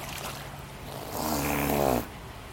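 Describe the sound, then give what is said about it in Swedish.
A seal gives one rough, snorting growl lasting about a second, fairly loud, with a buzzing, snore-like tone against a quiet background and no talking. The seal is vocalizing on a keeper's request, a natural behaviour that is encouraged with a reward. “Så låter sälen.”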